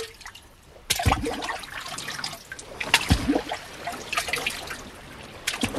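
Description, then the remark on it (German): Water sloshes and splashes in an irregular, continuous rhythm as someone wades through shallow water on the way to an island, starting after a brief quiet moment, with no voices. “Arsch ins Wasser und hat sich auf den Weg nach Blefusco gemacht.”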